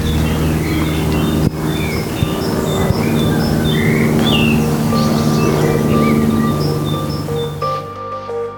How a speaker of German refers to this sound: Und die Vögel, hört ihr die Vögel?